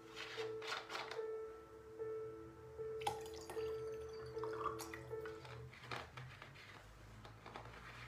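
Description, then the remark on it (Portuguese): Water trickles and splashes steadily into a small cup, with a faint ringing tone and scattered drips over about eight seconds, no voices present. “Deixa eu encher meu copinho com água.”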